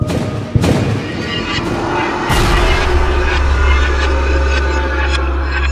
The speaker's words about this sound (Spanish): La extraña luz se apagó después de unos segundos, pero un sonido como de mil truenos, la explosión de una bomba, gritos y gritos de desesperación mezclados con alaridos incomprensibles retumbaron en los oídos de la ciudad, de todo el país.